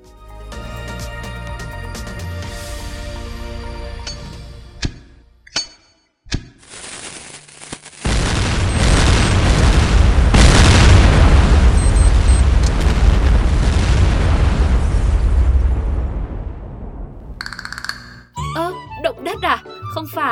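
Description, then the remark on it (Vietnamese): A massive, roaring blast of firecrackers, imagined as 800 kg of firecrackers going off at once, erupts and rumbles continuously for several seconds. It is loud and dense with crackling bursts, then fades into scattered sounds. “Đấy, đó là tiếng dầm vang động trời nếu như 800 kg pháo nổ cùng một lúc mà chúng tôi cũng vừa giả định thôi.”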